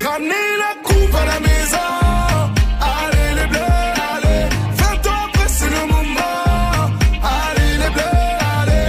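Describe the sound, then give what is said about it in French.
An upbeat pop song plays loud, with a thumping bass-heavy beat, bright synth chords and a sung melody, driving along steadily without any talk over it; it is the official 2018 World Cup victory song of the French national football team, Les Bleus. “Parce qu'en 2018, le son officiel de la victoire des Bleus, c'est ça.”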